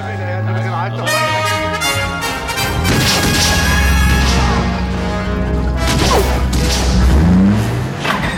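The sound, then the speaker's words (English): A loud explosion of a Nazi truck filled with explosives in a film, with crashing impacts and a deep rumble, swept up in tense, mournful orchestral music in a desperate, horrified minor key that swells and stays loud throughout. “when the truck explodes, we hear a desperate, horrified minor key version of Marion's theme”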